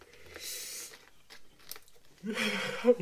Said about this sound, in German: du riechst die Suppe jetzt auf, aber bitte tu mir einen Gefallen. Schmatz nicht mehr so rum, wir sind nicht irgendwie ein ASMR-Podcast.